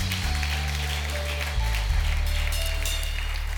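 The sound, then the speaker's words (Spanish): A crowd claps steadily and fairly loudly throughout, a dense patter of many hands over sustained low keyboard or organ chords that shift once or twice, giving applause to God. No one speaks. “¿Puede darle o no un fuerte aplauso a su Dios ante las situaciones más difíciles?”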